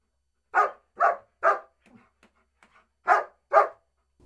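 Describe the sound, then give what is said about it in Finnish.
Esso, an almost 11-year-old Spanish water dog, barks loudly at the Ojangon dog sports centre: three quick barks, a short pause with faint soft noises, then two more barks. No one speaks. “No, tässä on meidän Espanjan vesikoira Esso.”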